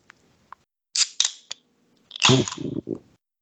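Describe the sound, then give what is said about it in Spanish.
A beer bottle being opened: a few faint clicks, then several sharp metallic snaps of the cap, followed by a loud fizzing hiss with a low rumbling tone underneath. “Voy a abrir, voy a, voy a abrirles mi segunda cerveza en vivo, güey.”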